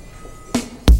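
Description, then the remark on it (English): A sci-fi space bus arrives: a faint low hum, then a sudden whooshing burst with a droning tone, and finally a loud, heavy blast. “Some sort of space bus?”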